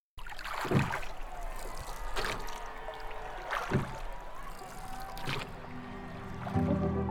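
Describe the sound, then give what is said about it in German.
A rowing boat glides through water, with splashy oar strokes at a steady rhythm of about one every one and a half seconds over a constant watery rush, fairly loud. “Wasser, Wettkampf und jede Menge Adrenalin. Beim Rudern ist sportliche Höchstleistung gefragt.”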